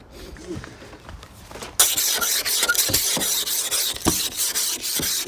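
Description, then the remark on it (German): Rough, rasping scrapes of an ice scraper across a frozen car window on a very cold January day, starting softly and then turning into steady, loud back-and-forth strokes with sharp clicks between them. “ist das Auto freigekratzt tatsächlich. Geht natürlich in Wirklichkeit ein bisschen schneller, aber für euch so ja, zum Hören.”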